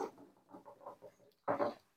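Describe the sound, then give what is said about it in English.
Dogs snuffle and pant in a run of soft, uneven bursts as they come into the room, followed by a louder, sharper huff or grunt near the end. “So sorry, my dogs are coming.”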